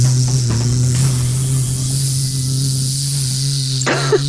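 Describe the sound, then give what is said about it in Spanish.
A person hums a steady, low buzzing drone, imitating a native Chilean bee that does not make honey. The unbroken buzz holds at an even pitch for about four seconds, with a few faint clicks underneath. “Quería darle las gracias de esta ah, conversación con un zumbido, ojalá cercano al de la abeja.”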